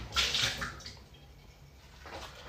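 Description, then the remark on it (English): Running tap water splashes as a mug is rinsed, with a strong gush at the start, a quieter trickle in the middle and another splash near the end. “Sorry about all the noise. Next few minutes, just rinsing out my mug.”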